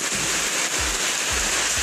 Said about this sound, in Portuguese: Talvez essa chuva simbolize lavagem. Lavagem dos imorais. Cai a água, isso, cai.